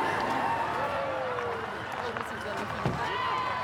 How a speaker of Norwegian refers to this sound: Applaus og hoiing når den kongelige kortesjen svinger inn til Hartvig-nissen.